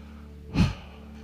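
A single deep breath in and out, soft, rising and fading within a moment over a low, steady background hum. No one speaks.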